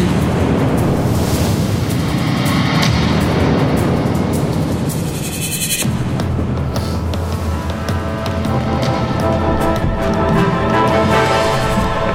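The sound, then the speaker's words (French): A brief board games segment jingle plays loud and dense, a rushing, noisy wash of sound that shifts abruptly halfway through into a steadier, more tonal stretch, with no one talking. “alors, on fait un petit jingle jeux de société.”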